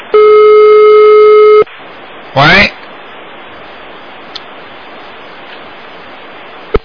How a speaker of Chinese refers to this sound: 哎呀，只能关掉了，没办法了，因为一直这个线路不好，真的很可惜啊！好不容易拨通了，狂播一个小时，又听不见收音机， 哎，真的是很可怜的。